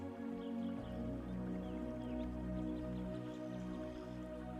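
river water trickling

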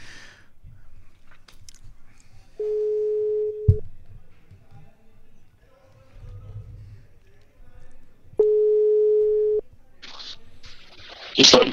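telephone ringback tone

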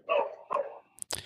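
dogs barking

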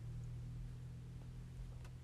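car interior driving noise

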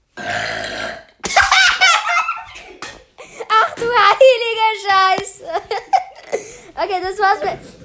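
burp

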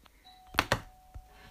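doorbell ringing

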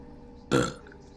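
burp

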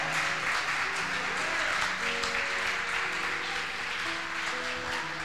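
audience applauding

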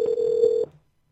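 phone call ringing tone

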